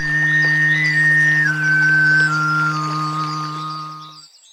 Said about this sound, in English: Finally, the Sygyt style cuts the loudness of the fundamental and amplifies the overtones, resulting in a whistling, high pitched sound.